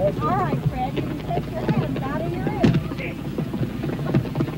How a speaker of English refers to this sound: That's the sound of pieces of whale raining down on people. Our cameras stopped rolling immediately after the blast. The humor of the entire situation suddenly gave way to a run for survival as huge chunks of whale blubber fell everywhere.